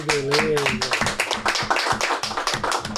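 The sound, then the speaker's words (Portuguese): A crowd breaks into steady, loud applause for Dr. Augusto Cury as a book is handed to him, many hands clapping in a dense, continuous patter. A voice rises briefly over the clapping at the start. “em pessoas, e pedir um forte aplauso do Dr.”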